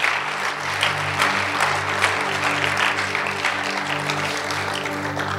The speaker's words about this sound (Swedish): Jag vet inte hur ni brukar göra, men hemma brukar vi ge en stor applåd till alla de som har lyft sina händer. Ska vi ge dem en stor applåd?